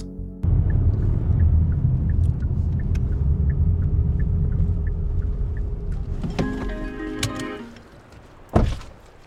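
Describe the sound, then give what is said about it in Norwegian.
Steady roar of traffic on the E16 highway rushing past a small farm in Bagn, Valdres, a vehicle's rising engine whine swelling near the end before a sharp thump. No one speaks. “tar oss imot på et småbruk i Bagn like ved E16, da trafikken suser forbi.”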